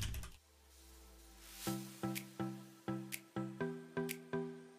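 Typing on a computer keyboard: a series of distinct, fairly regular, moderately loud key taps over a steady low hum with no voices, as someone types a search for Liakopoulos.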